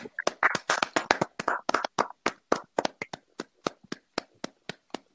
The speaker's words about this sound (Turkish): Birisi ayakta alkışladı.